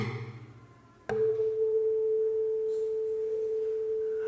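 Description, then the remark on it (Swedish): A sharp tap, then a pure, steady tone rings out and sustains evenly for several seconds as a tuning fork tuned to A resonates on an empty wooden resonance box, with faint harmonics above it. “Stämgaffelns svängningar som är osynliga för ögat men hörbara för våra hörselorgan fortplantas när jag placerar det på min tomma låda, en resonanslåda, in i lådan och finns också där.”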